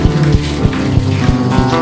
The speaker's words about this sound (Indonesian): Beri tepuk tangan bagi Tuhan Yesus.